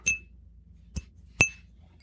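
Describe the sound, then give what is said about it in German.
Three bright glass clinks ring out, the first and last with a short shimmering tail, the middle one a quick tap, like glasses touched together in a toast, one of them holding Atlantic Ale beer. “Also ich, ich stoße mal mit euch ein. Ja, Prost.”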